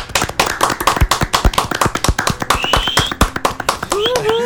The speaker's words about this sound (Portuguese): E eu queria pedir uma salva de palmas pra gente, porque finalmente o episódio 1 do Encena a Casa do Dragão se tornou o episódio de podcast mais ouvido da história do Mala Dourada. Obrigado a todo mundo e palmas para nós.